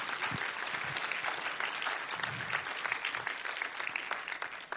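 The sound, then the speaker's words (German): An audience claps steadily and densely for several seconds, a sustained wash of many hands applauding together with no one speaking over it. “Lass uns jedes Mal einen Applaus geben”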